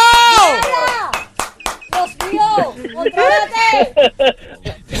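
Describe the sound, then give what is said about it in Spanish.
Hands clap in a quick, uneven series of sharp slaps, mixed in with loud, excited voices whose pitch swoops up and down throughout. “aplaude ahí manualmente.”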